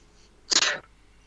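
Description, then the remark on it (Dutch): A single sharp sneeze bursts out, loud and breathy, lasting about a third of a second before quiet returns. “Gezondheid?”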